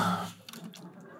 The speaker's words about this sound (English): I just got to have a drink of water.